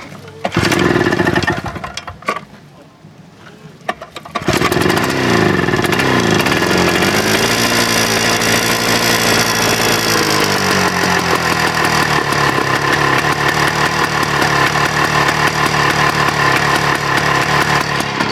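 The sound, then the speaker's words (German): A small, poorly muffled two-stroke tractor engine built in 1957, with fan cooling, is cranked, falls briefly quiet, then catches and settles into a loud, steady, buzzing idle, with a rapid putter that rises slightly before leveling off. “Da hört man zwei Takt da schon raus. Das klingt ein bisschen wie so ein kleiner Roller.”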